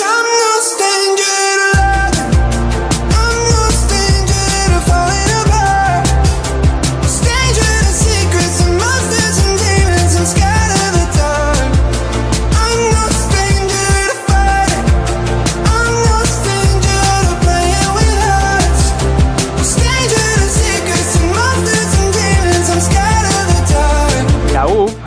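A pop song plays at full volume for the whole stretch, with steady bass, dense layered instrumentation and melodic vocals, pausing for a brief beat drop midway before carrying on. It is the lead track of a Latvian-American artist's new pop album, played on the radio.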